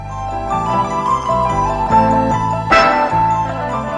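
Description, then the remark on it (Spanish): Eerie music from the film The Exorcist, repeating piano notes layered with ringing bell tones, steady and fairly loud, with one bright bell strike ringing out near the end. No voices. “Sale dos veces, en dos franjas, en el hospital y en la escalera, y todo el mundo se ha quedado con esta música. Esta es la música del exorcista.”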